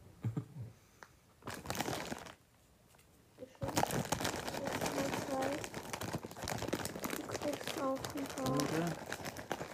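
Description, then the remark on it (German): A bag of Chipster chips from Italy is crinkled and torn open, loud rustling and crackling bursts that continue steadily, with someone talking softly over the noise. “Ich mach die Tüte mal.”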